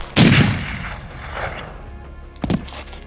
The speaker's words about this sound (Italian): Gli sparano alla schiena. Un colpo solo mortale.